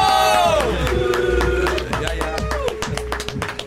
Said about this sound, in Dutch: Applaus. Applaus.